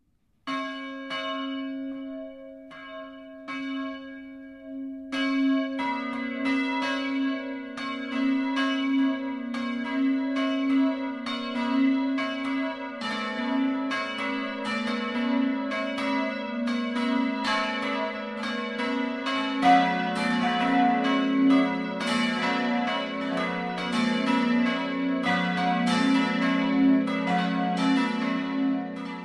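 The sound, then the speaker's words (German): Church bells of the Protestant Trinity Church (Dreieinigkeitskirche) in Burgsinn, Lower Franconia, Germany, ring out in a full 12 noon peal, one bell at first and then several more joining in overlapping, sustained strokes that build into a dense, resonant wash with no voices. “Das Mittagsläuten kommt heute von der evangelischen Dreieinigkeitskirche im unterfränkischen Burgsinn.”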